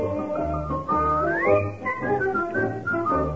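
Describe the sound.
A bright whistled tune glides and hops through a lively melody, with a steady bouncing band accompaniment underneath. It's loud, with no talking.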